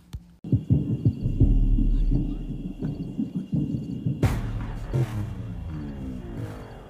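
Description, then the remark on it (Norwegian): A song begins with deep, throbbing bass thumps under a steady sustained tone, then swells into a fuller, brighter wash of layered instruments partway through. No one speaks. “Nå kommer jeg da til å spille et utdrag fra sangen '…'.”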